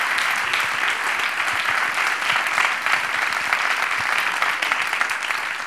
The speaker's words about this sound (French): et là, je vous demanderai de les applaudir aussi. C'est tous les bénévoles qui vont vous accueillir durant tout le week-end.